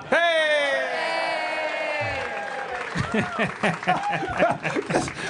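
An audience breaks into a loud burst of clapping mixed with laughter, following a few seconds of a sliding, downward-pitched harmonic tone that fades as the applause takes over.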